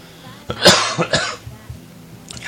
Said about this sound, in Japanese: 咳が、やっぱ、えー、喋り始めると咳が出るという、これ。